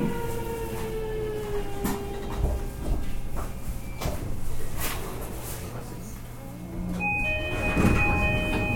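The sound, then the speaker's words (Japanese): A train door slides open after the blue button on the door is pressed, amid steady mechanical hum, with sharp clicks and a hissing whoosh of air, followed by a high electronic tone and surrounding station bustle. “ドアの青いボタンを押すとドアが開きます”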